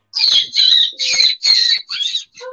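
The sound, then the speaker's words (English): A voice imitates a bird call: six shrill, raspy squawks in quick succession, loud, each about a third of a second, the last one shorter and thinner. “Like this goes way back when people had to learn how to communicate through sounds. You know what I'm saying? Like you see a bird.”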